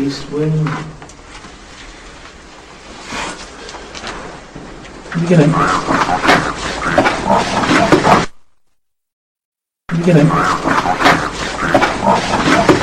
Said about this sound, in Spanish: se escucha a una persona que estaba hablando, pero justo cuando esta calla, se oye una voz grave que dice I have the body of a pig. Traducido al castellano es tengo el cuerpo de un cerdo. Y seguidamente, un ronquido fuerte.